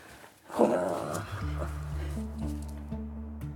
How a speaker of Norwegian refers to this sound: gladknurring